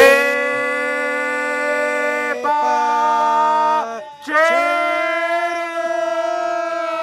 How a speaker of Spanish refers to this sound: ¡La ambulancia! ¡Ya, cálmala! ¡Ya, güey! ¡Ya! Híjole, esa, esa sirena me cae, hombre.